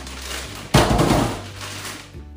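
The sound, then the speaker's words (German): A sudden clattering burst of ice cubes tumbling and knocking together as they are put into a freezer with leftover fruit, fading into softer rustling over a steady low hum. “Deswegen nehme ich jetzt ähm, die Eiswürfel, werde die jetzt mit dem restlichen Obst hier”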